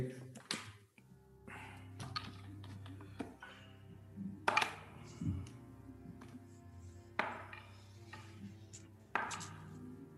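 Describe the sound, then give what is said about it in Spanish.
Several handfuls of many dice, rolled by the Dungeon Master during a tabletop role-playing game, clatter across a table in separate bursts a few seconds apart, fairly crisp, over a steady low hum with faint background voices. “Qué nervios cuando echa los dados el DM.”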